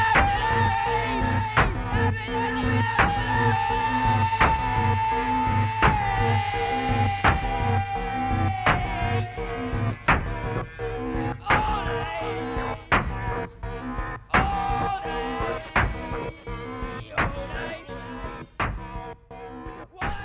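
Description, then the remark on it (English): Industrial noise music: dense buzzing drones with a sustained, wavering tone, punctuated by steady metallic percussive hits that repeat throughout at a loud, even level, with no voices. “It's true industrial, I guess, is what you call it, because it literally sounds like like factories and decaying towns, and it sounds like ambient noise.”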